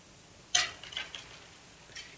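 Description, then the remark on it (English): Coins taken from a pocket are dropped and clatter with a bright metallic jingle, followed by a few softer clinks as they settle. Fairly quiet, with no talking. “He reached in his pocket and he simply did this took out some coins.”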